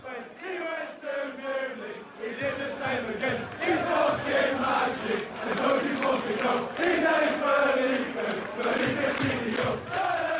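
A large crowd of Aston Villa fans sings a club chant for Felipe Coutinho in unison, the massed voices rising and falling in a steady melodic rhythm, loud and continuous throughout.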